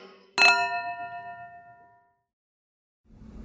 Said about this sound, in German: Zeichen vor der Vorstellung. Der Einlass ist beendet und die Vorstellung beginnt.